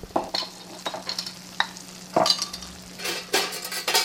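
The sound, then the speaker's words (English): Busy kitchen clatter: stirring and scraping with a steady sizzle of frying underneath, plus scattered clinks of utensils and pans, moderately loud, no voices. “The kitchen is noisy and not a good place for an interview”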